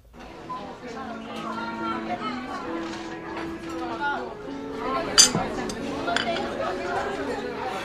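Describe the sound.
Steady murmur of many overlapping voices in a busy café, with scattered clinks of cups and dishes and one sharp, bright clatter standing out midway.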